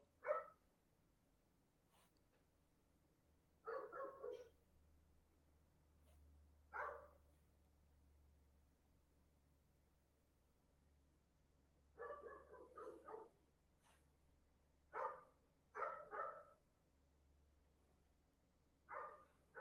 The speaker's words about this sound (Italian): Troppo bello il eh, cane in sottofondo comunque sul, eh, sul cartonato.